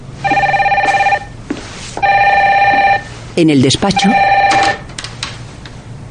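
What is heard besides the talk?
telephone ringing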